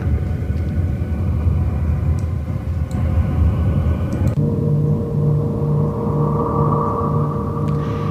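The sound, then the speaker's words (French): A sonified space signal from the moon Miranda: a continuous, loud rumbling drone layered with steady humming tones. Partway through it shifts to smoother sustained pitches with a brighter, whistling band rising above them. “On va peut-être faire Miranda, ce son-là.”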